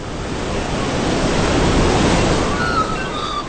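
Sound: sea waves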